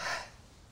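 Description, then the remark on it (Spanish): One short, breathy sneeze bursts out and quickly fades into soft breath noise. It is fairly quiet and stands alone with no talking. “Perdón. Salud. Gracias.”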